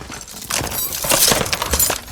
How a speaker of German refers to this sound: Aber seht euch mal an, was hier, auch noch drin steckt. Karton? Ja, ich kipp den, ich den Inhalt mal aus.